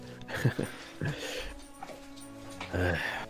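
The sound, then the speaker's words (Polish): A dog whimpers in a few short, high whining bursts spread over a few seconds, the last one longer and rising, with soft voice-like sounds in the background. “Ja słyszę, tylko psa wpuszczę.”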